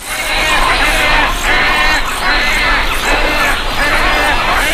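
A dense, loud racket of wood stork (Mycteria americana) nestlings calling in a breeding colony: harsh, raspy overlapping cries forming a continuous din that swells in rough pulses, with no talking.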